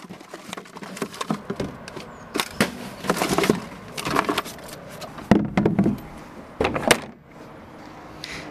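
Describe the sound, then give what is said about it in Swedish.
Cardboard waste from a newsroom thuds and scrapes as it is tossed into a recycling bin behind the town hall in Borgo, a string of irregular hollow knocks and rustles over several seconds, with no voices. “Så där låter det när kartongavfall från redaktionen åker ner i återvinningskärlet här bakom rådhuset i Borgo.”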